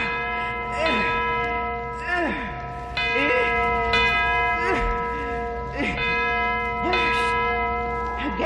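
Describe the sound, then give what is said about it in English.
A large bell, swung hard by pulling its cord, tolls repeatedly at a steady pace of roughly one stroke per second, loud and ringing, while a person grunts with effort between the strokes. “Here's the bell, and here's the cord. Now I'll swing it hard.”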